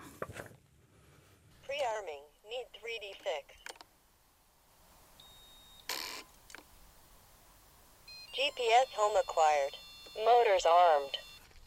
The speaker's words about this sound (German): Und was Sie jetzt hören, das ist nicht Michael Borgers, sondern eine Drohne.